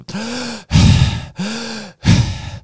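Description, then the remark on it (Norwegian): Loud, forceful breaths drawn in and blown out rapidly, three times: harsh, slightly voiced gasping inhales alternating with rushing exhales as a person deliberately hyperventilates, with no talking. “Det å puste for mye heter å hyperventilere.”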